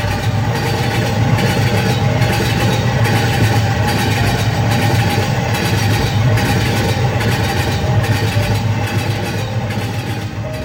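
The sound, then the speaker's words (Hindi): A train rumbles loudly and steadily as it pulls away, a heavy engine drone with a faint, regular clicking repeating about once a second. “जब गाड़ी खुलने को हुई और मैं उतरने लगा तो उसने मेरा हाथ पकड़ लिया और बोला सॉरी यार हो सके तो मुझे माफ़ कर देना मैं नीचे उतर आया गाड़ी आगे बढ़ गई”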